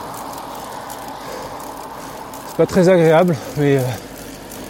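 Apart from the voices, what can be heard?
road traffic passing by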